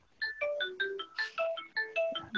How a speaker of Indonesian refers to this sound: Oh, eh, sorry, kayak ada orang ngebel di situ, gue. Ya, oh, ya, itu bel, sama aja.